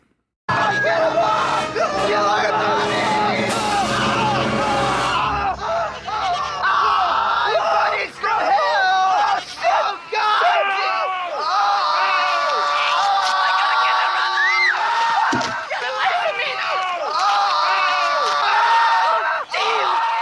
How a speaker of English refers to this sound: and they're screaming and yelling.